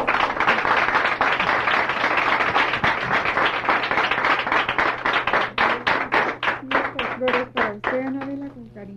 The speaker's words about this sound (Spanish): Para ustedes una bienvenida muy, muy cariñosa y un aplauso para todos los exalumnos y alumnos.